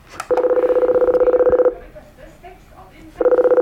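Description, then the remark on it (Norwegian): An electronic intercom call tone, from pressing the call button on a silver aluminium box at a locked door, buzzes steadily at a single mid pitch for over a second, stops during a stretch of faint background noise, then starts sounding again. “Da står jeg foran en boks, en sølvfarget aluminiumsboks, hvor det står en lapp, eller en knapp, hvor det står call. Så nå trykker jeg på den.”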